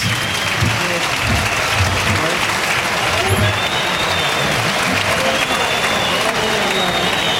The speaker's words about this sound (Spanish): Y Manzanares que recibe la ovación del público, ya están las, los pañuelos solicitando trofeo.